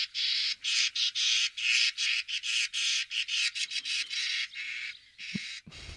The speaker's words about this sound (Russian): А давайте про скворца. Мы забыли, во-первых, его послушать и поподробнее немножко о нем поговорить. Давайте послушаем скворца.